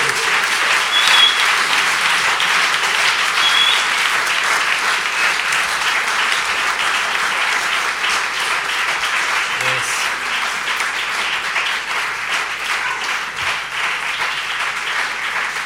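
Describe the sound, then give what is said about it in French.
Sustained audience applause, a dense steady wash of many hands clapping at an even loudness for about fifteen seconds, with no clear pauses. “Je pense qu'on peut les applaudir bien fort.”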